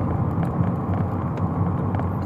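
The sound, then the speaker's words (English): A friend's car passes with a low, steady engine and road rumble that fills the whole moment, fairly loud, with no voices. “Oh, that's my freaking friend's car.”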